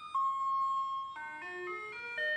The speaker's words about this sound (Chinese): 直到他们撞上垃圾车的车身，才笨拙地向后挤进车里，然后把车子往后开，开到下一栋住宅，沿着马路发出鸣笛声。